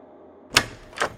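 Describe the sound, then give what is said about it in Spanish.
A door opening onto a fog-filled room, heard as two sharp clicks about half a second apart, like a latch and handle catching, with nothing else but a faint low hum and no voices. “Al abrir la puerta, todo se llenó de niebla.”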